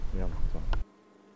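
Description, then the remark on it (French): Bees buzzing in bushes for under a second, a loud droning hum with a wavering pitch that cuts off abruptly into near silence. “Abeilles dans les buissons.”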